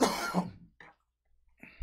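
A person coughs: a loud, harsh cough followed by a brief quieter hack and another rough cough after a short pause, with no talking.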